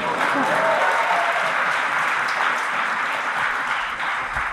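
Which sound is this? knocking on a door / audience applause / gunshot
audience applause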